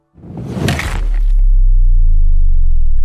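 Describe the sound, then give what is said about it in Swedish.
A champagne bottle shatters against a ship's hull at a ship christening in one loud crash, then a deep, steady low hum rings on for several seconds after the breaking dies away. “När man ska döpa ett fartyg så brukar man svinga en champagneflaska mot skrovet.”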